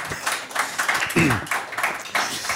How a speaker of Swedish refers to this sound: En applåd tycker jag. För jag tyckte det var ett väldigt bra val.